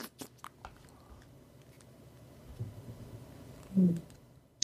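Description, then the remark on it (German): A woman chews a mouthful of torte she has stuffed into her mouth, with soft wet clicks and smacks. A brief louder mumble or gulp comes near the end. “Und sie stopft sich wieder so ein Stück Torte in den Mund.”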